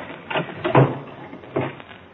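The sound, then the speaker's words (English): A closet door thuds shut, followed by a couple of muffled knocks and a rattling clunk as it is locked, with no voices. “I dragged his body into the closet and locked the door.”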